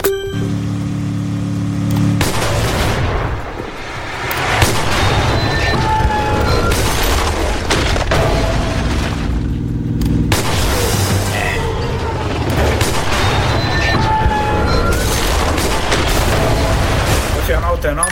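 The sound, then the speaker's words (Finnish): Video game gunfire and explosions boom and crackle continuously and loudly for the whole stretch, with rapid bursts of shots layered over electronic musical tones and a brief dip in the chaos partway through. “Ja ei, pitää mitä mielenkiintoisempia ääniä, kuten totta kuulitte, että se on joku musiikki musiikkiva, joka menee ja jos sen ampuu, niin se kannattaa hajoaa lisää ääniä.”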